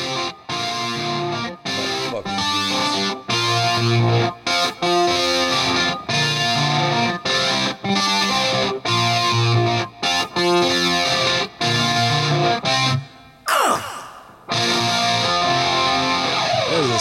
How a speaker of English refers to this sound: sticky little riff, and he's finger picking that.